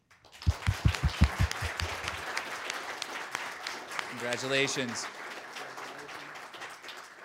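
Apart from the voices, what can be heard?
audience applause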